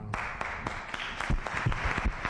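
A crowd claps steadily for the 2022-23 season programme schedule, dense overlapping handclaps forming a continuous wash of applause with a few sharper individual claps standing out, moderately loud, with no talking.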